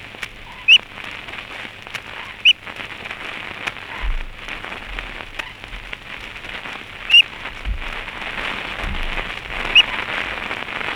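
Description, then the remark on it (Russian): A two-day-old crane chick gives four thin, high peeps, spaced irregularly several seconds apart, over a steady, loud hiss like rainfall, with a few low thumps in between. “А это голос двухдневного журавленка.”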